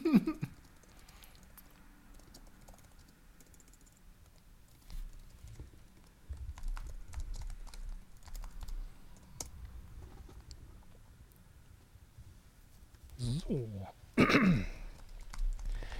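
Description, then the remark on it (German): Scattered, irregular clicks of typing on a keyboard as someone types in their birthday, over a low rumble, ending with a throat clearing and a brief voiced sound near the end. “Denn alle fertig getippt? nee, ich muss mein Geburtstag noch eintragen, Sekunde.”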